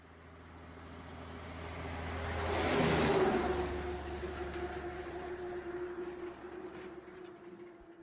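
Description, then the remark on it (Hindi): In the early morning at a roadside eatery in Punjab, a vehicle roars past, swelling to a loud peak and then fading, with a steady engine hum and a lingering tonal drone as other traffic continues in the background. “सुबह गाड़ियों के शोर से नींद खुली”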